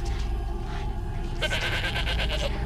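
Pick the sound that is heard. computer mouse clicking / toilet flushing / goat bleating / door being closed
goat bleating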